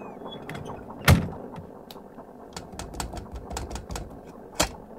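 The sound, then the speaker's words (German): A submarine hatch slams shut before the submarine dives under the water surface, with a heavy metallic clank, followed by scattered clicks and rattling and a second sharp thud near the end, with no talking. “Komm, Luke, schließen.”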